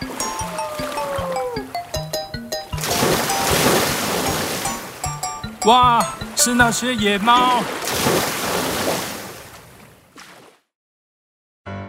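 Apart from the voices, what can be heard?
sea waves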